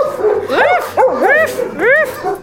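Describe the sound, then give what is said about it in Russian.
A dog barks and yips in three quick, high-pitched bursts with a slightly whiny edge, loud and clear with no other sounds around them. “Кто это? Кто этот пес? Кто этот нос?”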